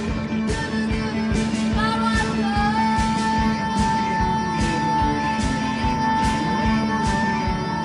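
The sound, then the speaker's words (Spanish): A Japanese post-punk song from 1982 by an all-female band plays loud, with steady driving drum hits, a plucked bass line and sustained guitar or synth tones filling the whole stretch. “este aire, mm. post-punk con esos bajos punteados ahí a los …”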